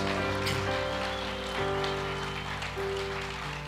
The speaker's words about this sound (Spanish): Vamos a darle ese aplauso grande a Cristo Jesús.